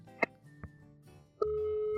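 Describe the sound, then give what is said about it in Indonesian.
Telephone tones from an outgoing call: a couple of short electronic beeps, then a steady ringback tone starts and holds through the end, clear, with no one talking. “Nah, ini kita telepon ya.”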